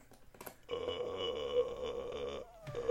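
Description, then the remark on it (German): A person forces out a long, gravelly burp-like vocal sound lasting over a second and a half, followed by a brief pause and a short rough catch of breath. “Bei dir klingt es, als würdest du rülpsen.”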